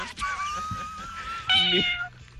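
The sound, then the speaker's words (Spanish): A cat meows: a long, drawn-out meow followed by a louder, shorter one, with no one talking. “Pero tú tienes gato”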